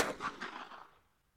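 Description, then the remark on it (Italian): One sharp pistol shot, fired to the temple in a Berlin bunker in 1945, cracks out, then rolls away in a series of echoing reflections that fade over about a second. No voices, just the lone report and its reverberant tail. “Pochi giorni prima, infatti, Adolf si era chiuso nel suo bunker e con un colpo di pistola alla tempia aveva ucciso Hitler.”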